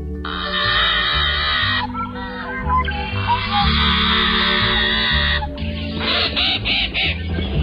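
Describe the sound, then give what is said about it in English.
Harsh, grating calls of a bird that is the only member of its genus repeat in loud, raspy bursts with no melody, the noisy squawks rising and breaking off over steady background music, with no speech. “Today's featured feathered friend is not one of them. Maybe that's why its genus contains no other members. Here's one sample of what he sounds like.”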